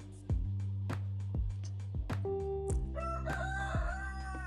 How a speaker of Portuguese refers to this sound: O galo.